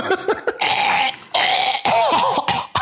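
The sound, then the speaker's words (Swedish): Someone gags and retches, forcing out a series of harsh, throaty heaves and choking bursts in quick succession while pushing a finger far down the throat to dislodge a hard popcorn hull stuck there. “Det lät på riktigt som du kräkte, men det gjorde du inte.”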